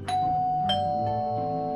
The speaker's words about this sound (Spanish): Pulsó el llamador cuya campanilla oyó sonar lejana en algún cuarto trasero